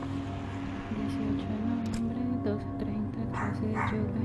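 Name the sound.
dogs barking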